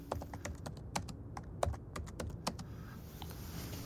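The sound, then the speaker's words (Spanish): Quick, irregular clicks of typing on a computer keyboard as someone searches a term online, fairly crisp, over a low room hum. The keystrokes thin out and mostly stop during the last second. “Déjame googlearlo.”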